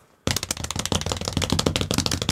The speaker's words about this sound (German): Äh, ganz kurz mal, ich mache einen Trommelwirbel, damit du nicht irgendwie rumschneiden musst da noch oder so.